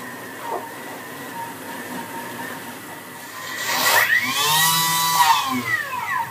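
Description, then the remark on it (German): After a few quiet seconds, a blender motor roars to life, chopping slices of toast bread for a green herb crust, its whine climbing and then sinking in pitch over about two seconds before easing off. No one speaks. “steht jetzt an dem äh, Mixer, hat die Toastbrotscheiben reingetan”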